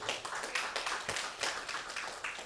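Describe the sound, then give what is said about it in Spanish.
A crowd claps together in a dense, sustained burst of applause, many hands striking at once with a steady crackling texture and no voices, given as applause to the Lord during a sermon. “Damos un aplauso al Señor, aleluya.”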